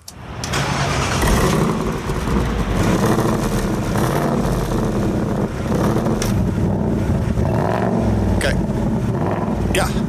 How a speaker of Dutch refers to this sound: Dat geluid van de Mustang. Onze luisteraars hebben dat niet elke dag, dus ik help ze even op weg.